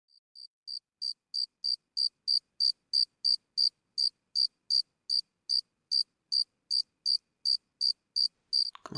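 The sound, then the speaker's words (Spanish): A single cricket chirps in a steady, regular rhythm, about two and a half pulses per second, each chirp high and bright, growing louder at first then holding even, with no one talking. “Vamos a, a empezar entonces la meditación con el sonido de los grillos.”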